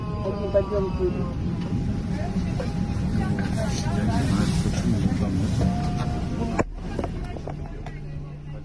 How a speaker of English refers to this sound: Soon after leaving his seat, he collapsed onto the floor of the plane. On a video recorded by one of the other passengers, you can hear him moaning in pain.